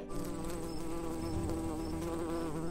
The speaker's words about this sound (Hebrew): וואו, זר מיוחד, גם הדבורה אהבה אותו.